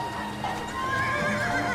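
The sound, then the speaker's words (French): A carriage horse in Paris during the August 1911 heatwave neighs in a wavering, drawn-out whinny while hooves clip-clop steadily beneath it, moderately loud, with no one speaking. “À Paris, on se baigne dans les fontaines, on arrose les chevaux qui tirent mollement leurs voitures.”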